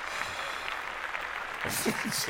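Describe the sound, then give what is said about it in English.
A crowd claps in a steady, dense patter, and the applause swells louder in the last second as voices start talking over it. “That was a very round of applause to them.”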